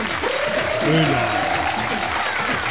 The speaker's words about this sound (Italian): Bravissimi, bravi, bravi. Boom, boom, boom. applauso